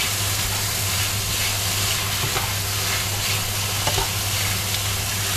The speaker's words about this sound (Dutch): Ik ga even bakken. Ik wilde een ehm, soort van eh, noedels erbij doen. Ga ik nu doen. Cognac noedels. Fettuccine heet het wel. Hoe? fettuccine. Weet ik veel. Ik bak het eh, bij elkaar.